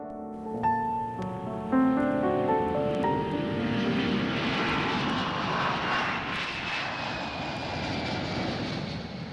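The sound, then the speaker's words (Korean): A jet airplane engine spools up with a rising whine as the plane takes off, then swells into a loud, steady roar of takeoff thrust, continuous with no voices. “그래서 사실 유럽이 어딘지 몰랐는데 비행기표를 끊고 태어난 날짜에 맞춰서 바로 떠나게 되죠.”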